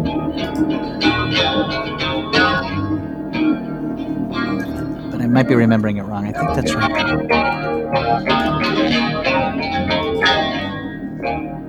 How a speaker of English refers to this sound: This one also, though, the guitar tones are also like sound very of a time, not in a dated way, but it just sounds 90s to me and I love it. I think she goes up. I think she, this is an emotional one, though. I think she kind of soars on this.